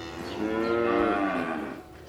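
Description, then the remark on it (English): A dairy cow lets out one long, loud, drawn-out moo that rises and then falls away inside a barn on a dairy farm, with no one talking; the cows moo hungry to be fed while hay is shoveled for them. “They moo at her, hungry to be fed.”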